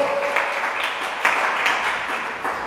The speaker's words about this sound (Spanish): Si va a aplaudir, aplauda fuerte porque es para él, no es para ningún apóstol.